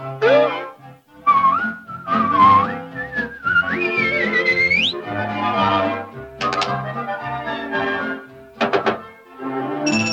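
Bright melodic whistling with sliding, rising pitches carries a tune over a full instrumental backing, punctuated by a few sharp percussive knocks near the end.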